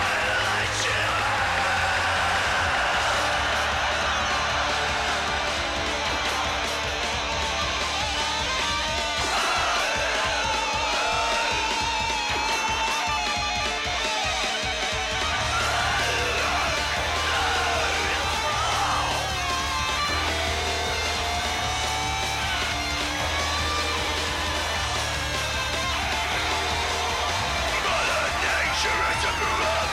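Loud, dense hard rock with a punk edge plays without pause, distorted guitars and a driving beat filling the mix, with a shouted, crowd-like energy throughout.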